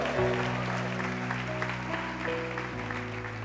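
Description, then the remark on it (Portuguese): An audience applauds steadily, a dense wash of clapping that holds for several seconds while sustained organ or keyboard chords play underneath. “Dê um brado a Ele e aplaudo neste lugar.”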